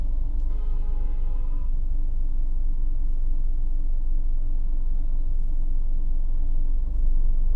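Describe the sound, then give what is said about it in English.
A heavy truck rumbles with a steady, loud low-frequency roar, a brief whining tone near the start, and the engine noise holding for several seconds without any voices. “Is this truck going to do it?”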